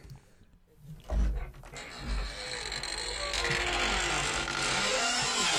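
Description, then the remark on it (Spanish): A door creaks open with a low, grinding groan that swells after a quiet start and then holds as a continuous rasping, rumbling creak, fairly loud, with no talking. “Es como se abre la puerta.”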